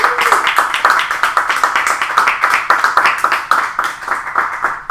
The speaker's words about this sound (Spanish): Puedes dar un aplauso al Señor si lo crees.